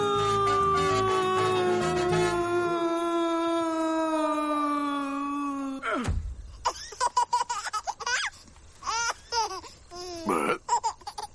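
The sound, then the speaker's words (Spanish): A voice imitates a wolf with a long, loud, sustained howl that slowly drops in pitch for about six seconds, then breaks into bursts of laughter. “¡Cómo aullaban! ¡Menudos aullidos!”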